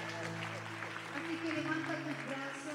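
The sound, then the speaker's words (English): An audience clapping their hands to Jesus, a steady wash of claps blended with sustained musical tones and voices, continuous and fairly loud throughout. “Come on, clap your hands to Jesus in this place.”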